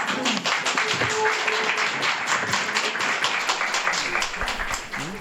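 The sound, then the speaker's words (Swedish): A large crowd applauds steadily in a courtroom at the close of a four-hour trial, many hands clapping in a dense, continuous patter that stays fairly loud for about five seconds, with a few faint voices mixed in. “Mycket folk, applåder inte så jättesvettiga frågor men det är väl för att vi är öppna liksom.”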